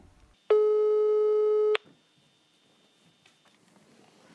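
A single steady electronic telephone ringback tone sounds for just over a second, loud and clear, then cuts off into near silence with faint line noise.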